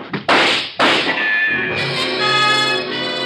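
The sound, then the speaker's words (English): Two sharp, loud gunshots crack out in quick succession, the bullets tearing into a rug on the floor, followed by a lingering ringing tone that hangs in the air. No one speaks. “The slugs tear into the rug beside us.”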